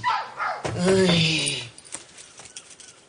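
A dog barks and yelps in a short, loud burst lasting a second or so as an assistant enters with it, then it falls quiet apart from faint background noise.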